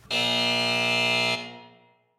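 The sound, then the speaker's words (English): A single loud, harsh electronic buzzer blares steadily for over a second, then cuts off with a short ringing decay. No voices accompany it. “Man, you got that in just under the buzzer, Dr.”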